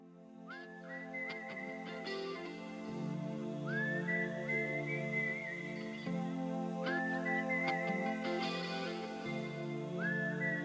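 A slow, melodic whistled tune opens a rock ballad played as a slow dance in a disco, its gliding phrases repeating over sustained guitar and keyboard chords at a steady, unhurried pace, with no voices.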